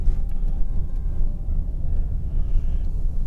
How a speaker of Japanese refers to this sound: ちょっと左から車が来てますが待ってくれましたありがとうございます